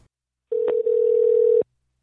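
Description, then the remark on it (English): A telephone ringing tone on an outgoing call to the New South Wales Education Standards Authority (NESA): one steady, low electronic purr lasting about a second with a brief break partway through, heard clearly on its own with no voices. “It seems that everyone who rings up NESA and everyone who answers their phone also must comply.”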